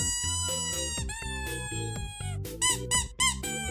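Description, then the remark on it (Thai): A rubber doll squeaky toy is squeezed on its belly, letting out three or four shrill, wavering squeaks in quick succession near the end, over a steady, rhythmic musical backing. “อีทอีทมีเสียงร้องดังขึ้นมาอีกครั้ง ช่างน่ามหัศจรรย์อะไรแบบนี้ใช่ยอน้องอีทร้องได้แล้ว”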